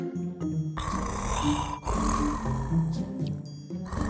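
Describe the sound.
Two long, loud, rasping snores, one right after the other, harsh, apparently a person's voice imitating heavy snoring.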